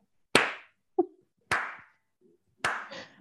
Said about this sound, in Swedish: Det är fan i mig värt en riktig applåd. Så här långsamt.